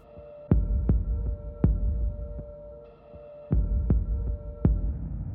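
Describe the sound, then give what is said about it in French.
A deep, muffled heartbeat heard through a stethoscope thumps in lub-dub pairs, steady at a slow resting pace, with a low hum running underneath and no voices. “Si nous mettions nos stéthoscopes sur notre propre poitrine, nous entendrions la pause de la diastole.”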